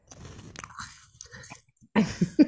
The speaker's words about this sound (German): Ein Knabberdingschen, weil ich habe noch nichts gegessen.